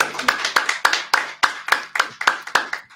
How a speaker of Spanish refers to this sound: Un aplauso nuevamente